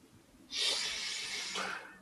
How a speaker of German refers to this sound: Atme mal tief ein.